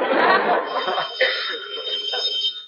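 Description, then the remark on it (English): A telephone bell rings steadily and fairly loudly for a few seconds, its shrill metallic jangle continuous rather than broken into separate rings, with some voice-like murmur mixed underneath. “oh, there's the phone”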